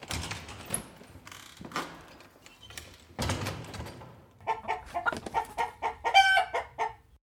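A chicken clucks repeatedly in short, choppy bursts, fairly loud, with some rustling and clattering movement noises mixed in and no one talking.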